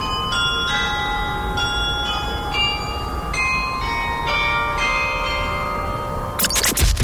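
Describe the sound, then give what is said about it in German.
A town hall glockenspiel of 25 small bells chimes a slow melody at 12:04, each bright note ringing out and overlapping the next, heard outdoors over steady background noise, ending with a brief rushing burst. “Ab heute klingeln die 25, ab heute klingeln die 25 Glöckchen also wieder.”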